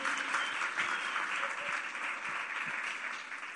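Steady applause from an audience welcoming a guest fills the whole stretch, a dense, even patter of many hands clapping at a fairly quiet level with no voices standing out.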